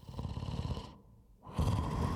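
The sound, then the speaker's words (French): Loud, raspy snoring: a long rumbling breath, a brief pause, then another heavy snore starting up, with no talking. “Ils commencent à entrer et entendent un ronflement assourdissant.”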